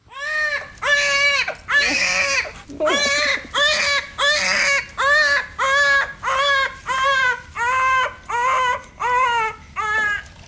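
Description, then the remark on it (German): A newborn baby, just born in a water birth, gives its first cry in a steady series of about twelve high, wailing bursts, each rising and falling in pitch with brief breaths between, loud and continuous with no talking. “Und der erste Schrei des Kindes hat auf sich warten lassen.”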